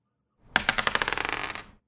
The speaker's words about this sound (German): Möchtest du gerade nochmal würfeln? Mach noch eine neue Runde. Jetzt hoffen wir einfach, nicht, dass es nochmal ein Eins ist.